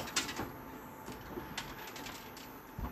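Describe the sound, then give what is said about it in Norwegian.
Scattered clicks and clattering knocks rattle irregularly over a steady low rumble as empty bottles and rubber mats rattle around inside a car rolling over onto its roof and back, moderately quiet. “Og det skrangler fortsatt inni, og det er en ny runde.”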